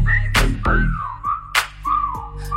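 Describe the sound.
A few short, slurred whistle phrases, swooping and sliding in pitch, repeat over a steady low bass groove, punctuated by sharp percussive hits in a music track.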